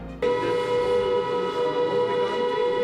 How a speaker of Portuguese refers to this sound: Agora há pouco, aqui em Lviv, próximo à fronteira com a Polônia, nossa equipe ouviu o som da sirene.